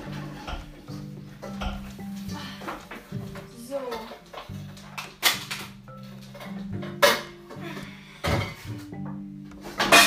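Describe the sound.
A frying pan is pulled out for frying diced bacon, with several sharp metallic clanks and knocks scattered over a few seconds, and a steady tonal hum and some murmured voice in the background.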